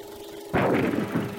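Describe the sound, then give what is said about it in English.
A sudden loud burst of gunfire erupts after a quiet moment and keeps roaring with rough, pulsing blasts, set against a steady low hum, in a trailer for the film The Fighting Phantom. No one speaks. “roaring guns, and singing slugs.”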